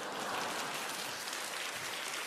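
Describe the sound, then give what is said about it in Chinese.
An audience claps continuously, a dense, steady wash of many hands with no distinct individual claps standing out. The applause stays fairly loud and even throughout, with no voices over it. “说实在很没有面子，你还拍手。”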